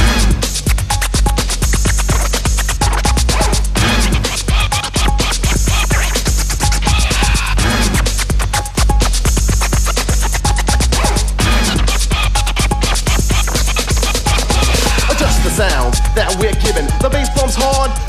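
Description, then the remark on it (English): A DJ scratches a record on turntables, rapid back-and-forth strokes cutting in and out over a loud, steady hip-hop beat, continuing dense and energetic the whole way through. “Turntables, records we are abusing, rolling with the sound of a kick drum.”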